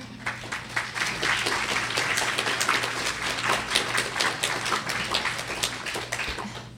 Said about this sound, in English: So just let's just like shower them with a little blessing right now. Just clap for them before they even say one word.